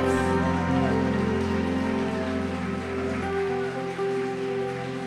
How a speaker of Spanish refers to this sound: No se oye ese aplauso para Dios. Si le va a aplaudir, apláudale fuerte a la gloria de Dios.